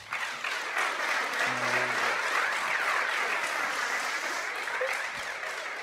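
An audience breaks into sustained applause, a dense steady wash of many hands clapping at once, holding fairly loud for several seconds before easing off slightly at the end.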